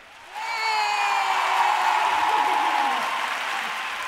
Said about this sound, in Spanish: Si una persona aplaude, aunque no tenga ni puta gracia, aplaude todo el mundo.